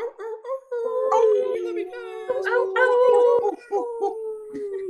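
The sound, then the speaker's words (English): Several voices imitate wolf howls together over microphones for a full moon, long wavering overlapping howls rising and falling in pitch, fairly loud, with brief pauses between swells. “So, full moon wolf howls, just sending some love.”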